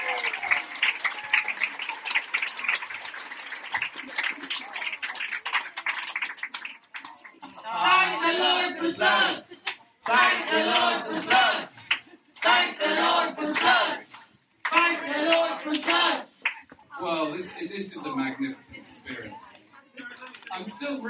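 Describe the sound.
A dense round of applause with quick, crackling claps fills the first several seconds, then fades as voices take over and keep talking for the rest.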